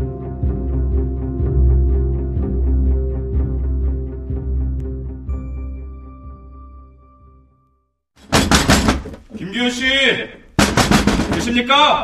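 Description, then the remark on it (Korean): Police pound repeatedly on a house door, a rapid series of heavy, low thuds over a steady rumble. The knocking then stops and loud voices take over. “저거 우리 집 문 두드리는 소리야?”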